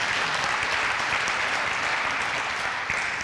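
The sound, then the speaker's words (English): A church audience claps and cheers steadily during a service, a dense wash of applause from many hands with scattered shouts, sustained at an even loudness throughout. “You don't have to cheer every time I say that, by the way.”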